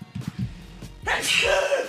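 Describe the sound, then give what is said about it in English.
A single loud sneeze bursts out sharply after a moment of low murmuring, its hissy, breathy release trailing off over about a second. “Yeah, it's so good it make you sneeze now.”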